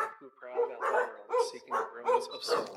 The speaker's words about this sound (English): in the downstairs bedroom with the room shut, and outside the door, my dogs start freaking out barking.